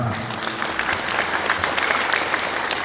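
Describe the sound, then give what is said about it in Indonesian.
Steady audience applause at an official event in Ketapang, greeting the Chair of Commission 2 of the regional parliament (DPRD): a dense wash of many hands clapping at a fairly even loudness throughout, with no voices standing out. “Tepuk tangan.”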